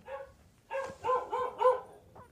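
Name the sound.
dog barking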